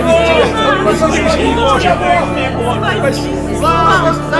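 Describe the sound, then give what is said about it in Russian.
A large crowd surrounding Jesus as he rides toward Jerusalem shouts joyfully all at once, many overlapping voices cheering and calling out "Save us!" with rising, excited pitches, loud and unbroken for the whole stretch. “Толпа окружила Иисуса со всех сторон, и весь народ радостно кричал.”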